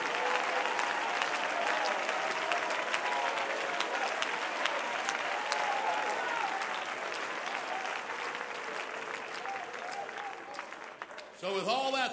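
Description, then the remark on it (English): A church audience at a night service claps steadily and loudly in praise of Jesus for the whole stretch, with many voices calling out praise in a dense crowd roar; near the end a single voice rises above the applause. “Come on, we ought to clap him and praise.”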